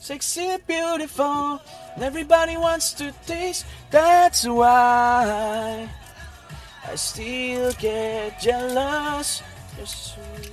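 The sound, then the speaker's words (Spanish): A pop song with a male lead vocal plays in the background in a car, sung melodic lines over a steady beat and bass, moderately loud throughout. “Eh, y si escuchan de fondo está la canción”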